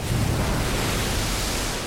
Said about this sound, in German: Doch die nächste Sturmwelle rollt schon wütend auf sie zu.